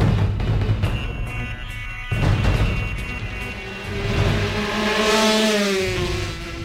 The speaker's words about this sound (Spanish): Oye, mira cómo corre la moto ahí de Muñoz. Cómo cierra la puerta.